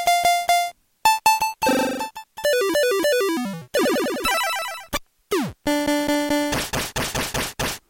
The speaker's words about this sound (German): Das hier wäre zum Beispiel ein typischer Fall für den Rauschgenerator. Das heißt, wenn ich in so einem C64 die verschiedenen Tongeneratoren drinne hatte und äh, da war, wie gesagt, ein Rauschgenerator dabei,